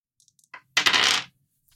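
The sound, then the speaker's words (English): Dice rolled across a tabletop: a few light ticks, then a short, bright rattling clatter that settles after about half a second. No voices are heard. “I have 2d6 in the chaos pool. Mm-hmm. This doesn't fall under either of your things. So roll 46.”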